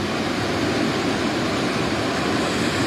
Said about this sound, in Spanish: Aquí están las olas que está formando. Vienen para acá, para conmigo. Wow se formó un tsunami. se vino Se vino toda esa casa, que bárbaro.